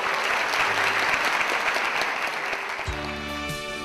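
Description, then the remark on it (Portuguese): A church audience claps together for Jesus after a prayer, in steady, dense applause that holds loud throughout, and near the end a sustained organ or keyboard chord begins underneath the clapping. “Dê um aplauso a Jesus.”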